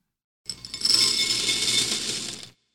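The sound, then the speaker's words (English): Dry cereal pours steadily into a bowl for breakfast for about two seconds, a dense, continuous rattle of many small pieces clattering together, fairly loud, with no voices. “If you or your grown up is ever too tired in the morning to cook up a big breakfast, you can just pour some cereal.”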